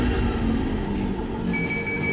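A pneumatic tube capsule is sucked up the tube by a vacuum that has just been switched on: a steady, loud rushing whoosh of air with low rumble, and a thin high whine sets in partway through. No voices.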